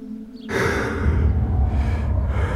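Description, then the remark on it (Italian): After a near-silent start, a sudden loud gasp bursts in, followed by heavy, rough breathing that continues until the end, as a person who had been hanging in a noose regains breath after asphyxia. “il corpo apre gli occhi e riprende a respirare.”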